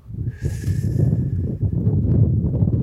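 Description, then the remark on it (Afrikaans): Wind blowing in steady, rumbling gusts that buffet the microphone for the whole stretch, with a faint thin whistling tone early on and no voices. “Ehm hoor hoe waai die wind nou.”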